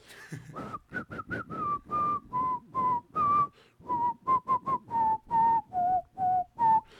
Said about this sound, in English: And I guess I got to do the whistle thing.